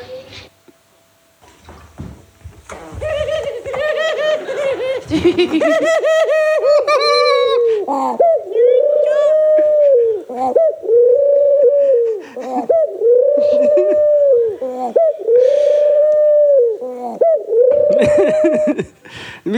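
A pigeon coos loudly, a steady series of about eight rounded, throaty coos following a busier, jumbled burst of calls at the start.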